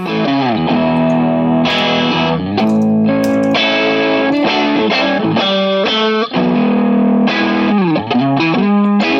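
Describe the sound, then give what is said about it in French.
A Fender Blackguard Telecaster electric guitar, one of the very first Fender instruments, with light distortion plays a continuous run of chords and bent notes, bright and gritty, at a steady loud level without any talking. “c'est la Blackguard Telecaster, avec un peu de disto.”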